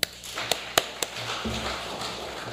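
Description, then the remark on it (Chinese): A speaker lowers a microphone that was set too high on its stand on a church stage at Nankan Grace Church: four sharp clicks and knocks in the first second, then low rumbling handling noise and faint scraping. No one speaks. “弟兄姐妹平安，我调一下我的麦克风。”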